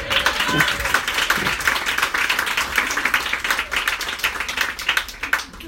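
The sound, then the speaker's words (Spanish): An audience applauds steadily for several seconds, a dense, crackling wash of many hands clapping at once, fairly loud and even throughout, with a few voices faintly mixed in. “Oye, cuando alguien aplaude, tienen que aplaudir todos porque si no es muy triste.”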